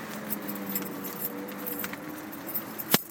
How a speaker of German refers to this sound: Und jetzt gleich muss ich versuchen, mit der einen Hand diese Kisten zu balancieren und mit der anderen den Schlüssel aus meiner Hosentasche zu holen. Denn ich komme hier hinten nur mit Schlüssel rein.